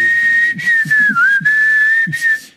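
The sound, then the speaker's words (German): A single person whistles a slow, steady national anthem melody, the tone clear and sustained with gentle pitch glides and no talking. “Wie wäre es, wenn man künftig bei der Nationalhymne die einfach in der Melodie pfeift?”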